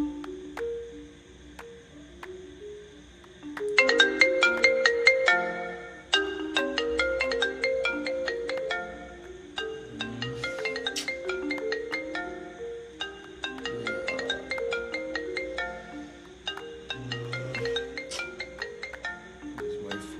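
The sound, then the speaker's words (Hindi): A melodic phone ringtone plays loudly, looping its bright, chiming tune for about twenty seconds with no one speaking over it. “this a time आप किसी को फ़ोन करते हो”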